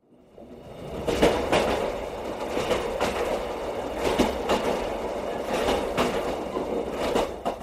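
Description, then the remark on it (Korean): Steady rumbling of a train rolling along the rails on the way from Maseong Station back to Cheongnyangni Station, with recurring sharp clacks and metallic knocks at irregular intervals. No one speaks. “마성역에서 다시 기차를 타고 청량리역으로 돌아오는 와중에 나는 아내로부터 더 많은 이야기를 듣게 되었다.”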